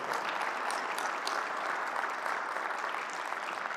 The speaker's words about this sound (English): Come on, can we make some noise for your pastor today? You guys are incredible. Incredible.